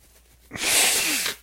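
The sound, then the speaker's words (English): A person blows their nose once, a loud, hissing burst of air lasting under a second, with no talking around it. “I really blowing my nose.”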